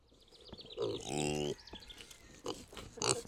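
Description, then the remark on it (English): Kune Kune pigs grunting on a pig farm near Adair, Iowa, with one long, loud, nasal grunt in the middle and shorter snorts around it, while birds chirp faintly in the background. “Okay, so these are Kune Kune pigs, K U N E, K U N E and they actually are a red meat.”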